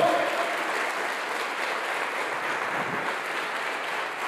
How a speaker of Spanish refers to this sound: Dele fuerte ese aplauso al Señor.